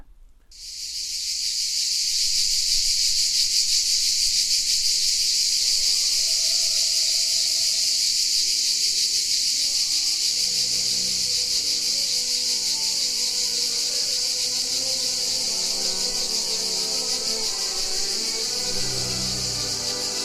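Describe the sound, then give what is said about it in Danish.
A dense, unbroken chorus of cicadas on a baking hot Provence afternoon buzzes loudly and steadily for the whole stretch, a bright shimmering drone with faint low rumbles beneath it and no voices. “Når den bagende Provence eftermiddags cikadekor i det første halvmørke overlader rummet til de små hundrede stemmer i Monte Carlo og Avignon Operarnes kor, blander natur sig igen efter et blankt coronaår med kultur”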